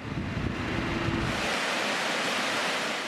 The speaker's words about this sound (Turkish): Van'da karların erimesi Muradiye Şelalesi'ni coşturdu. Kışın donan şelale görsel şölen oluşturdu.